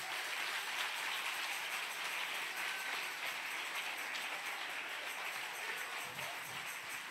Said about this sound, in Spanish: Si le va a dar un aplauso.